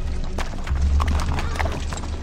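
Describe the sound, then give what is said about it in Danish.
Horse hooves clip-clop in a steady rhythm over a low rumbling background, with a short whinny breaking through partway along, moderately loud. “bliver smidt af sin hest på vej over et vandløb.”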